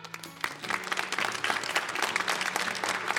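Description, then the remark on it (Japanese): Students clap together to show they know that Ōda City is promoting its anago (conger eel), in a sustained burst of applause, many quick overlapping claps forming a dense, steady patter that starts softly and builds after a moment, with a low hum underneath. “生徒にも聞こう大田が今穴子に力を入れているっていうのを知ってる人は拍手してください”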